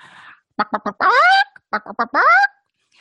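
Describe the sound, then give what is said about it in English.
A voice mimics the cackle chickens make when they lay an egg: three quick clucks followed by a long, rising squawk, repeated twice, loud. “we have chickens and when our chickens lay an egg they make this sound”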